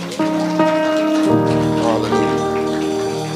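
An audience applauds in a steady, dense patter of clapping that holds for the whole stretch, while sustained keyboard chords ring out and shift underneath.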